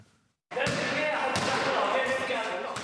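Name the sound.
balls bouncing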